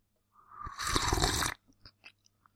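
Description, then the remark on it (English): A single loud slurp of a drink lasting about a second, airy and wet, followed by a few faint clicks and small swallowing sounds. No one speaks. “Our last sip.”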